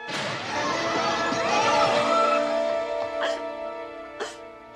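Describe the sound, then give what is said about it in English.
A sharp crash as a gunshot shatters a vase, followed by a sustained ringing tone with a couple of smaller clinks of falling fragments, loud at the start; Blanche's vase is shot at night in the house. “You shot my vase.”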